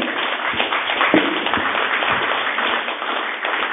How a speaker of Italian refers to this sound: Allora, vorrei un applauso per,